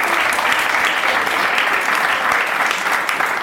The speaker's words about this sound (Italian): Grazie per averci ascoltato, la nostra intervista è finita. Grande applauso